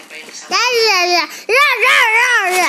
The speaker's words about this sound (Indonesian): kita akan mendengarkan informasi dari bayi soal ramalan cuaca episode ber, ber, ber, ber, berbahasa bayi ayo ayo ayo.